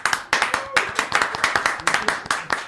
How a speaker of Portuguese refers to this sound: Por, que, por, quê? por que as palmas? Ah, porque a gente é. merece.